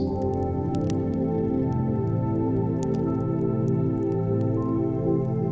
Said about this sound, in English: See your surroundings as they begin to form, and notice how the light of the fire nearby dances off of them. hear the distinct natural sound of the fire as it crackles and sways.